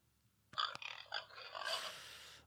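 A pig or boar grunts and squeals in a quick, rough series of loud snorts that run together into a continuous noisy squeal toward the end, with no voices present.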